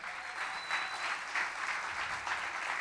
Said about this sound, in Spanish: Eso dice mi Biblia. Dele un aplauso a Dios si lo cree.